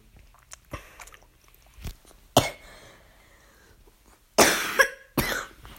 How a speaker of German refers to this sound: Sorry, habe ich ein bisschen Husten.